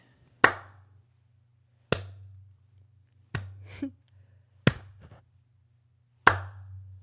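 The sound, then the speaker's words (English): Five sharp, loud hand claps ring out one at a time, spaced roughly a second and a half apart with short decays, over a steady low electrical hum and no talking. “But uh, let me do this clap real quick.”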